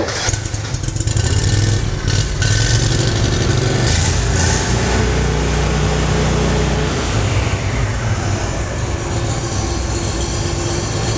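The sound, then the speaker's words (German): A tracked amphibious rescue vehicle's engine is started briefly and runs loud, a steady low rumble with brief revs near the start, then settling into a continuous drone. No one speaks. “Ich starte ihn mal ganz kurz, das ist eigentlich eine ziemlich simple Sache.”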